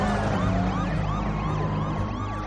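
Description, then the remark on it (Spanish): Several police sirens from two police vehicles entering a dirt track wail at once, their overlapping rising and falling tones loud over a constant engine rumble, with no voices. “Dos vehículos policiales y la ranchera de Hamilton entran en la pista de tierra.”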